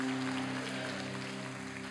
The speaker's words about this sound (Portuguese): aplaudir Ele nessa manhã mais uma vez?